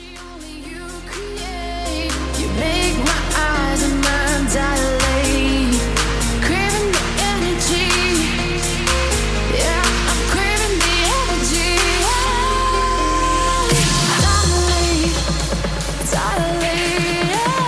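Loud electronic dance music, the EDM.com track of the week, with a steady pounding kick, heavy bass, synth chords and bright hi-hats, building after a softer opening and briefly dropping out near the end before resuming.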